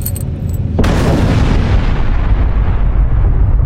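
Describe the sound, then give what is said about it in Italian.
A sudden, loud explosion bursts in after a brief quiet, shaking a cave, then a deep, heavy rumble rolls on and lingers without fading as gravel and dust fall from the cave ceiling. “Una forte esplosione scuote l'intera grotta che sembra vacillare mentre cade ghiaia e polvere dal soffitto.”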